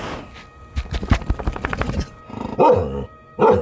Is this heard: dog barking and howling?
yes